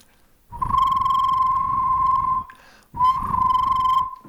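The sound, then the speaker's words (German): Two long, shrill trilling whistle blasts, a person imitating a referee's whistle with the mouth by vibrating tongue and lips, not a real whistle. Each lasts about two seconds with a brief pause between, loud, with no talking. “Sie, Sie müssen uns jetzt einfach glauben, dass es keine Trillerpfeife ja.”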